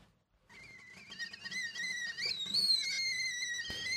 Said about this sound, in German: Wie ein zweiter Wecker jaulte das Pfeifen der Teekanne am Dienstagmorgen um 6.45 Uhr durch die Küche der 30-jährigen Sozialpädagogin Frieda und ließ ihr die noch etwas müden Augenlider hochschlagen.